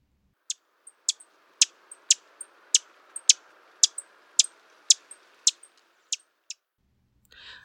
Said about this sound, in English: And finally, the Lincoln's chip.